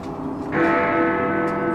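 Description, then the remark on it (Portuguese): A single loud strike of a clock tower bell chiming midnight in dense fog rings out over a low background rumble, its deep tone lingering and humming steadily after the hit. “Escutei as badaladas do Big Bang novamente, marcando a meia-noite, e respirei confuso, porém aliviado.”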